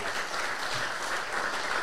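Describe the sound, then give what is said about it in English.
Steady audience applause for three visiting coaches before a Q&A session, a dense wash of many hands clapping at an even, sustained level for the whole stretch, with no voices rising above it. “Round of applause, please, for these guys.”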